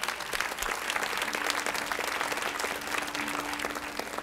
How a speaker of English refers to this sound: But men, we need you and we miss you when you're not here. I, I need you when you're not here. Yeah, let's give our men a hand clap.